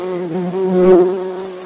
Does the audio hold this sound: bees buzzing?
yes